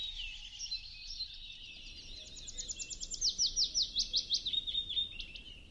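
Old-growth forest ambience with a single bird singing high, bright warbling phrases that build into a fast run of repeated chirping notes, over a soft, steady background hush. No voices.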